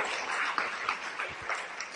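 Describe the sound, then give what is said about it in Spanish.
An audience at a seminar applauds steadily for about two seconds, a dense, crackling wash of many hands clapping at even loudness, with no voices over it. “Por favor, vea, vamos a darle un, vamos a darle un fuerte, un fuerte aplauso.”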